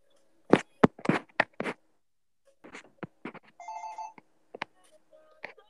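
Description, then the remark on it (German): A phone rings with an incoming call from a father, its ringtone a series of sharp electronic hits followed by a brief melodic chime, fairly loud with no one speaking. “Äh, mein Vater ruft gerade an.”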